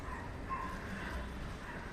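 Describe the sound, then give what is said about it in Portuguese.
Several dogs bark in a faint, continuous chorus of overlapping barks and yips with no clear pauses, set against a steady background hiss. “Olha, olha a cachorrada latina.”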